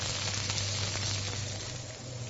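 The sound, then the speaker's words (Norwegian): Reindeer meat sizzles steadily in a frying pan with hot olive oil, a dense crackling hiss with a low hum beneath, continuous with no talking. “Det er så deilig lyd. Hør.”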